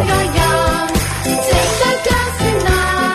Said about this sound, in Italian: Senti, allora io ti saluto con questa canzoncina di nuovo.